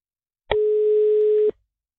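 A single steady telephone ringing tone of an outgoing call sounds for about one second, clear and even, starting and stopping abruptly, with silence around it and no voices.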